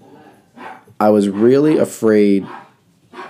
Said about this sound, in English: Sorry if you can hear my dogs in the in the background.